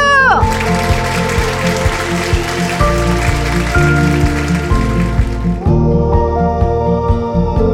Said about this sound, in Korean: 나 자신에게 힘찬 박수!